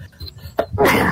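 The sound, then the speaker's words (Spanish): A single loud sneeze, a quick sharp intake followed by a breathy, hissing burst that fades out, performed by a person's voice. “Y como reacción, voy a estornudar.”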